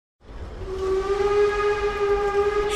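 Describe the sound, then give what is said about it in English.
A steam train engine lets out a long, steady whistle over a rough, rumbling roar of noise, loud, starting abruptly and holding for a few seconds. “And if the steam train didn't have any vapor, it would stop.”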